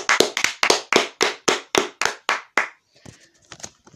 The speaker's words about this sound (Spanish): Un aplauso para L.